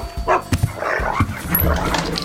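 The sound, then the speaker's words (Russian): A dog named Altai barks several times, short loud woofs in an uneven burst, with a busy murmur continuing underneath. “Алтай! Гав!”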